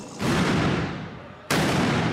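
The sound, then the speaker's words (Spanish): Two loud gunshots, the first shots fired from a building over a town square near the church of Santiago, ring out a little over a second apart, each sharp crack trailing into a long, rumbling echo. No voices are heard. “Escuché los primeros disparos.”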